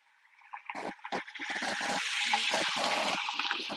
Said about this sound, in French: pardon, voiture qui passe.